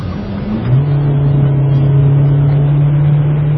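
A turbocharged MPV with a 5-speed automatic gearbox, driven on a highway, pulls hard under acceleration, its steady low engine drone rising and holding firm after a brief swell, loud throughout with no one talking.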